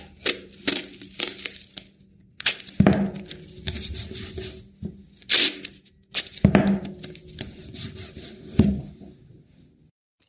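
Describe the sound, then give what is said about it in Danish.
A sharp hobby knife slices through cardboard and sticky tape is pulled as artist Søren Bænke (Papfar) makes large cardboard sculptures, heard as irregular bursts of scraping, crackling and ripping with short pauses between them, and no voices. “En skarp hobbykniv og klæbrig tape. Det er de to vigtigste rekvisitter, når kunstner Søren Bænke skaber store skulpturer af pap.”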